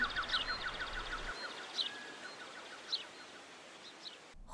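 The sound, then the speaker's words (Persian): A small bird perched on a branch chirps in quick, repeated high notes with brief pauses, over a soft, steady rustle of wind moving through branches and leaves. No one speaks. “چشماتون رو ببندین و صدای حرکت باد توی شاخه ها و برگا رو احساس کنین آ یه پرنده کوچولو هم اومد نشست رو شاخمون”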